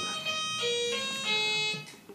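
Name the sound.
doorbell ringing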